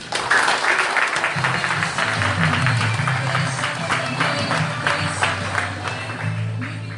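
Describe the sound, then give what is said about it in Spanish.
Loud, sustained audience applause, a dense wash of many hands clapping at a steady level for the full seven seconds, with a low hum running underneath. “Fuertes aplausos.”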